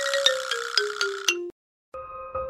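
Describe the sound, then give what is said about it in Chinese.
An electronic doorbell chime at a home, rung by a visiting relative, plays a quick run of about five bright notes stepping downward, falls silent briefly, then starts ringing again. No one speaks. “这时候啊，传来了门铃声，原来是很久没见的猫姐姐来拜访了。”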